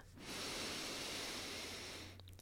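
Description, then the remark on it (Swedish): A single long, deep inhale through the nose, filling chest and belly, a steady breathy hiss lasting about two seconds, fairly loud, with no talking. “Så bara släpp ner axlarna, ta ett djupt andetag in genom näsan, fyll upp både bröstkorgen och magen med ny luft, ny energi.”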